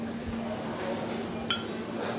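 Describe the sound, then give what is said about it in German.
A single bright clink of glasses touching in a toast with rye whisky, short with a brief ringing tail, heard over a steady low background hum. “In diesem Sinne, Prost Leute.”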